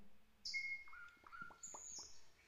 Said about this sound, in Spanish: Los pájaros cantan.